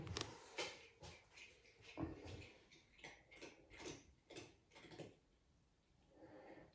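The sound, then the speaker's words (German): A pet named Krater chews noisily, a run of crunchy, clicking bites and gnawing sounds in an uneven rhythm, fading to quieter rustling near the end. “Der Krater kaut.”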